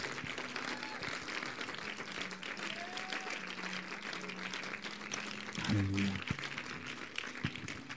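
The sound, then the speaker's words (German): After a prayer, an audience applauds for Jesus, a dense wash of many hands clapping steadily at an even level throughout, with a few murmuring voices and a brief low hum rising in the middle. “Ja, lass uns einfach mal einen Applaus geben, Jesus und der Menschen gezogen hat.”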